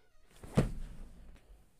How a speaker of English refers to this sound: did you just hear that? What the fuck just creaked? my what the fuck just creaked? Something opened and it wasn't my door.